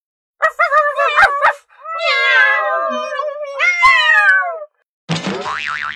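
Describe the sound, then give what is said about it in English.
A pet cat named Mimi, scared by a dog and stuck up a tree, meows loudly several times: a short choppy cry, then two long, drawn-out, wavering yowls, followed after a brief pause by a different harsh, buzzy burst. “你们的狗吓得我们家的咪咪躲在树上不敢下来了。”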